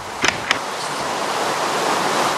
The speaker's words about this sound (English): I'm going to mute the sound. Yeah, go ahead. So people yeah. don't need to uh, hear rain.